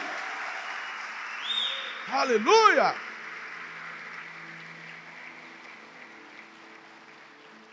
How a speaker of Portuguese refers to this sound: Aplauda Jesus por isso. Aleluia!